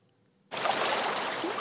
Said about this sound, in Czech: Vlny Vltavy mu už druhý týden naráží přímo na fasádu penzionu.